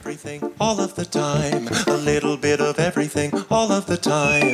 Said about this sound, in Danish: han synger en sang om internettet